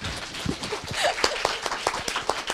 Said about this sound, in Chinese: 所以我们给访谈嘉宾一点掌声啊，同志们！